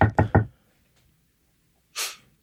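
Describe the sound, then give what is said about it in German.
Three quick, firm knocks in a rapid row, fairly loud, followed after a pause by a short breathy hiss. “Ich habe immer falsch geklopft. Okay, ich dachte, ich dachte, klopft einer bei dir.”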